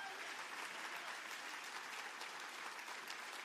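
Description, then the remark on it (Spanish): An audience applauds steadily after a sermon, a dense, continuous wash of clapping hands that holds an even, fairly loud level throughout, with no voices standing out above it. “Si crees que Dios habló, ese aplauso tiene que hacer tronar los cielos.”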